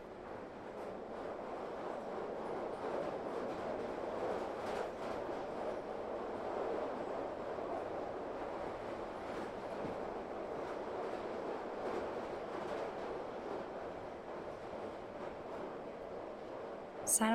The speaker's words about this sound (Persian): یهو دیدم سوار قطارم دارم از پنجره بیرون رو نگاه میکنم